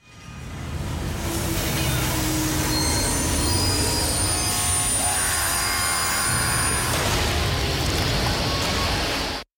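Loud, continuous rumble of a train rolling along the tracks, with high-pitched wheel squeals rising and falling over the clatter for nearly ten seconds before cutting off abruptly.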